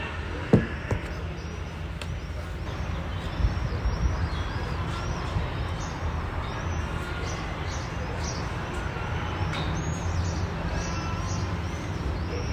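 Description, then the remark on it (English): Seagulls along the Tiber River give repeated thin, mewing calls that sound like a cat, scattered through the whole stretch over a steady rushing outdoor background. “I've always noticed the gulls here because, especially along the Tiber River, of course, but you wake up to the sound of seagulls as much as you wake up to the sound of other birds. But this new meowing.”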